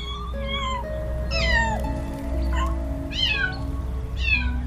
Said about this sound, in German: Und dann siehst und hörst du auch weshalb. Ein schneeweißes Kätzchen sitzt dort oben und miaut ganz kläglich.